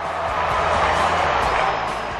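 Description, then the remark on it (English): A huge stadium crowd roars as the Roosters' James Tedesco runs the length of the field to score a try, a dense, sustained wash of noise, loud and steady throughout with no pause, a massed swell of cheering voices blended into one continuous din. “Crowd goes up.”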